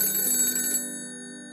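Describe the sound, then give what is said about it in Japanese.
An old black telephone's bell rings in a short, rapid clattering burst, then stops and leaves its metallic tones hanging and slowly fading. It is fairly loud, with no voices, introducing a phone-in guest segment. “牛蜜時の黒電話”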